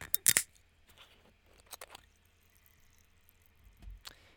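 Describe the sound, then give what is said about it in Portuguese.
A bottle of Água das Pedras sparkling mineral water being opened: a sharp cap crack and fizz burst, then a few softer clicks and a light clink with a dull thud near the end. “Só por causa das merdas vou abrir uma água das pedras.”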